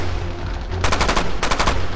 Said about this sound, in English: I squeeze the trigger on my M4 carbine spraying bullets into the giant, hairy figures rushing through the mist at me and my fellow tactical response officers.